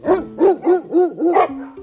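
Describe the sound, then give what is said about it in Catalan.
Herding dogs working with livestock bark, about five loud, quick barks in a steady, even rhythm, followed by a brief whine-like tone, with no voices. “entrem en la realitat i veuen els perills que pot haver-hi, poden veure els gossos treballant.”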